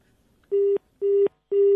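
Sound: telephone number being dialed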